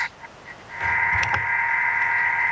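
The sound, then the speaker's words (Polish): After a brief quiet moment, an appliance starts up as its rotation speed is increased and runs with a steady whirring hum, with some low churning of water mixing inside just as it kicks in. “słychać, jak się, tam ta woda miesza? Oczywiście, że słychać.”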